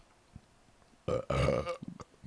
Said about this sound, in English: Nice. I thought that was a little pause for the story, but okay. Uh, no, it, it was paused because I knew there was a burp coming.